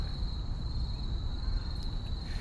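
A steady, high-pitched insect trill recorded in a park drones without pause for the whole stretch, fairly faint, over a low rumbling outdoor background with no voices.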